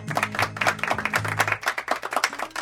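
A small group applauds, quick overlapping claps forming a steady, lively patter at moderate volume for a few seconds, with a faint low hum running underneath.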